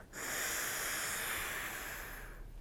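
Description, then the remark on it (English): One long, forceful breath from a maximal inspiratory breathing exercise to strengthen the diaphragm rushes steadily for about two seconds as a loud, airy hiss, then stops abruptly. No one speaks. “It's a maximal inspiratory training technique to maximally breathe in and strengthen that diaphragm”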